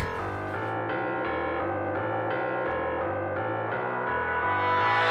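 A smooth, sensual soul song opens with warm sustained chords that shift in a steady, unhurried rhythm, full, with no vocals yet.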